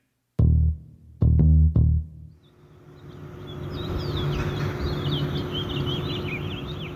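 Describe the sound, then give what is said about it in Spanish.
A flock of wild birds in Mexico City chirps and twitters in overlapping calls over a steady urban hum, preceded by several loud, low resonant strikes at the start. “El audio que escuchaste es de un grupo de aves al interior de la Ciudad de México”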